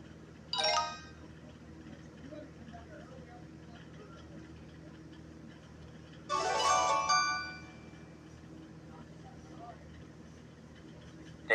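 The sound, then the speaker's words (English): A short, bright chiming jingle from a math website plays twice, a brief sparkle near the start and a longer flourish a few seconds later, over a steady low background hum. “that sounds like Bewitched music”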